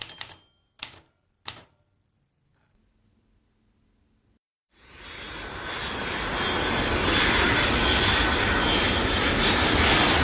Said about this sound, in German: Verschlafen machte ein jugendliches Mädchen auf, als das Flugzeug, in welchem sie sich befand, gelandet war.